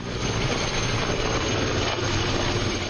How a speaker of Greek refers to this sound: Πλησιάζει τώρα και το πυροσβεστικό ε, όχημα. Θα τραβήξουν και οι πυροσβέστες μάνικες εδώ σε αυτό το σημείο.